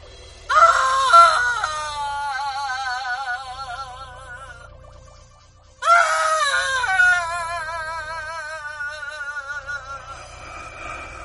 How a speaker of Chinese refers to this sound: 何大力跑到客厅，拿起话筒，依旧是凄厉的哭声。